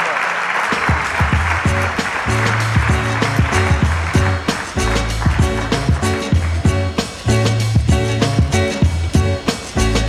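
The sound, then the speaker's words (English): Loud, sustained audience applause fills the whole stretch, a dense wash of many hands clapping, with a low, repeating musical tone pulsing steadily underneath. “Give it up. Big round of applause.”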